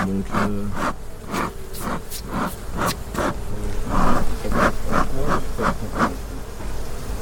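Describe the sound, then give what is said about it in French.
Repeated short breathy puffs of a beekeeper's smoker, about two per second in a steady rhythm, over a constant low buzzing hum of bees, as smoke is puffed at the bottom. “Allez, enfume en bas, s'il te plaît.”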